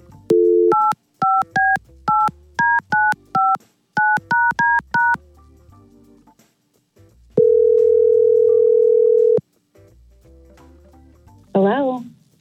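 A brief telephone dial tone gives way to a rapid series of about a dozen touch-tone dialing beeps, followed by a single long ringing tone, all loud, as hosts of the Y100 radio station place a call.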